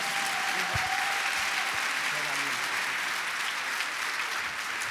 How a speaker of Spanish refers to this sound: ¡Wow! Denle fuerte ese aplauso a Jesucristo.